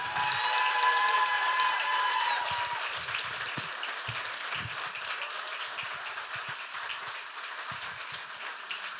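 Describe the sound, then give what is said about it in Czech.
Steady, dense audience applause welcoming a guest at a live evening show, with a few high whistles or cheers riding on top early on before the clapping settles into an even, sustained roar. “Přivítejte ohromným potleskem.”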